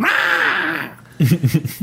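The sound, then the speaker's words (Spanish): A shrill, wavering screech like a cat under attack rings out loudly for nearly a second from an old Nintendo console as a game starts, in place of the usual music, then breaks off and a person starts talking. “En vez del usual fondo de castillo ruso y la música tan conocida, lo que sonó fue una especie de chirrido. Como un gato cuando es atacado por un perro.”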